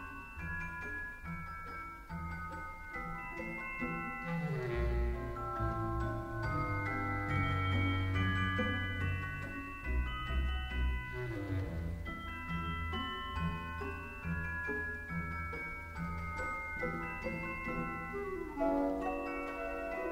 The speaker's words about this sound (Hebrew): ממציאים כלי, שזה צ'ייקובסקי, התרומה של צ'ייקובסקי לעולם התזמורת, כלי בשם צ'לסטה. זה מין פסנתרון קטן, אבל הוא משמיע צילים של פעמונים ככה נשמעת תפיית הסוכר עם הצ'לסטה בתוך המוזיקה של מפתח אגוזים.